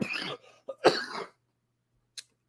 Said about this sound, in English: should not, you know, I should not be doing this sick. I need a, I need a break, but it's fine. We'll keep it going. I apologize for the coughing.